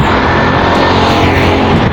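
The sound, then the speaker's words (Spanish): Loud, steady rumble of street traffic with motorcycle and car engines droning, a dense, continuous roar with no voices. “Entonces, hasta ahora, lo que puedo ver son algunas personas que ven en la calle, si hay motos”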